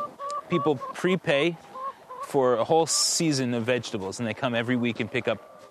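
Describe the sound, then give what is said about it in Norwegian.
Hens on a small innovative farm in Vermont that produces eggs cluck in a busy, uneven series of calls, some short and clipped, others drawn out and rising, overlapping one another throughout. “Oliver Louis viser oss hønene sine.”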